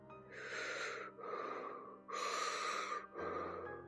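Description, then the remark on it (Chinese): Heavy, raspy panting breaths that draw nearer, four long drawn-out inhales and exhales in a slow steady rhythm, loud and breathy with no talking. “还夹杂着越来越近的喘息声”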